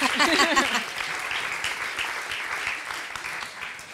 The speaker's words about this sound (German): Dein Applaus.